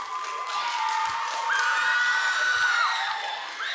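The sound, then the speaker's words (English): An audience claps for the speaker's fiancé, cheering loudly and steadily, with high whoops and a long shrill whistle-like shout rising above the dense applause before it eases slightly at the end. “And you can clap for him if you want to.”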